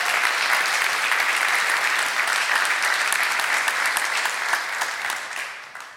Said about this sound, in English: Um, this was the original song that they just wrote. Would you just give them a round of applause for a beautiful day?